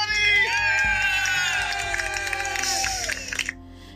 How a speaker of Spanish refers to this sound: Un aplauso por favor porque hemos llegado a el final.